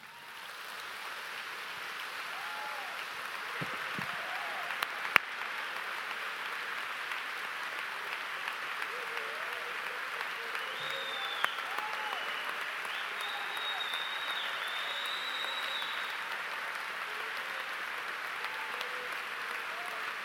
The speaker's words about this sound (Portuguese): Então, nós vamos fazer um exercício, vamos oferecer um sacrifício de palmas por um minuto, sem cântico. Você vai começar a aplaudir ao Senhor. Um minuto, de sacrifício de palmas.